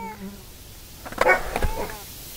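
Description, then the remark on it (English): A cat gives a short, wavering meow, moderately loud, over a faint background hum, with another brief cry trailing off near the end. “Do you hear a kitty cat meowing?”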